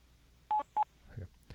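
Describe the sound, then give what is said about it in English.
Two short, clear electronic beeps in quick succession, a voicemail tone on a phone call after the outgoing greeting, followed by faint low murmuring noise. “Did it beep?”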